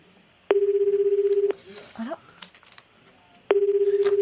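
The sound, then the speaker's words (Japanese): A steady, buzzing telephone tone sounds twice, each burst about a second long and fairly loud, with brief murmured voices and faint noises filling the gap between them. “ちょっと電話来てください”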